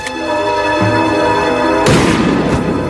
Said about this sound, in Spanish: y le disparó un solo tiro en el centro del pecho.